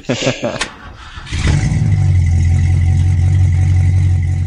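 A big car engine cranks over in a few quick bursts, then catches and settles into a loud, deep, steady rumble that carries on to the end.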